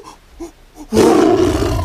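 tiger roaring

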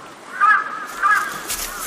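crows cawing

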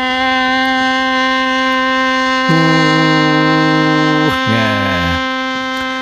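ship's horn blast

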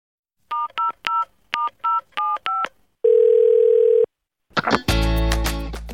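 telephone keypad dialing tones

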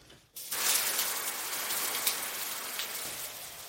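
shower water running

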